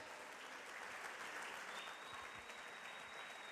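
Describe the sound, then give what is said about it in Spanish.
Steady, dense applause from a church audience in Caballito, Argentina, fills the whole stretch, a continuous wash of many hands clapping at an even level with no voices standing out above it. “No, si vas a aplaudir, si vas a celebrar.”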